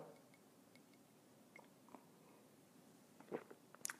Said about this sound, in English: I like coffee. And join me now for the unparalleled pleasure of the dopamine hit of the day, the thing that makes absolutely everything, including coronavirus, better. It's a simultaneous sip. Go.